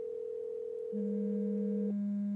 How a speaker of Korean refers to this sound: 이 방 안에 휴대폰이 한 개 더 있다는 것 말고는 답이 없었다. A의 여자친구에게 전화를 한순간 울리기 시작한 의문의 휴대폰. 이게 가리키는 사실은 하나밖에 없었다. 우린 소리가 나는 곳을 찾았다. A가 늘 가지고 다니는 가방 안에서 소리가 나고 있었다.